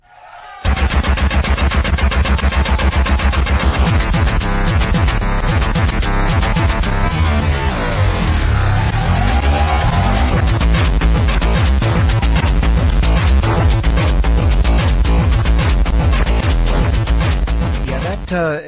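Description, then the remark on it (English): Harsh noise music, a mix of electronica and industrial, plays at full volume at a live performance in front of a crowd in Japan, a dense wall of distorted sound broken by rapid, stuttering machine-gun-like pulses that hammer on for the whole stretch with no voices. “It's kind of a mix between electronica and industrial.”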